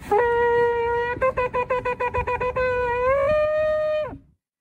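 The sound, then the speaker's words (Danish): A man at a protest, a Trump supporter alleging election fraud, blows a horn loudly: one long blast, then about ten quick staccato bursts, then a sustained note that bends slightly upward before stopping abruptly. No one speaks. “Jeg har faktisk øh, lyden af det ved, hvor Du har optaget øh, det til os, øh, Emil Jørgensen.”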